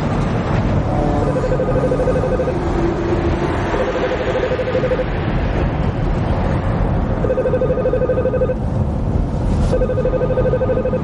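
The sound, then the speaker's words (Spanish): A phone rings with an incoming call from someone named Donald, just after another call is hung up: repeating electronic ring bursts of steady mid-pitched tones, several in sequence, over a constant low rumbling background like an engine or road noise. “Cuelga y recibe una llamada de alguien llamado Donald.”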